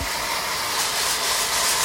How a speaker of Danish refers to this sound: Og så op med vinduet, og så har han en stor øh, metalbrædpande, og så kommer hårdtøren.